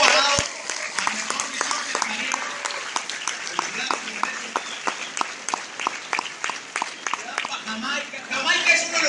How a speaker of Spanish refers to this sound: Le damos un aplauso al clasificado